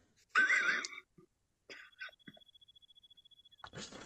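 Thin, high cricket chirping pulses in a quick, steady rhythm, played from a laptop, sounding played through a small speaker, following a loud rough burst of noise and some scattered clatter.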